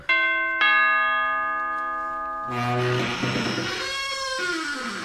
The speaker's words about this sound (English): Ring the laird's doorbell.